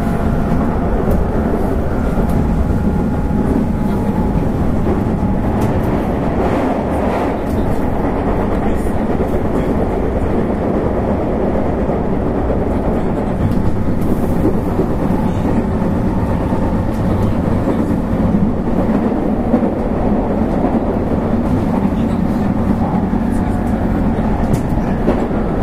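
A JR 221 series Yamatoji Rapid train running at a steady pace between Osaka and Kyuhoji, approaching Bentencho station: a continuous low, droning rumble with faint rhythmic rattling and hum, loud and even throughout, with no voices.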